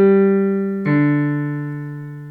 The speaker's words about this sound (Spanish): Tú cuando escuchas esto, mira a ver si escuchas el piano, cuando escuchas esto...